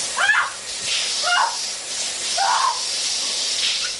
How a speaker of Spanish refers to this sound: En el baño, la mujer se ducha. Se pasa las manos por el cuello y por la cara. De la alcachofa de la ducha sale vapor.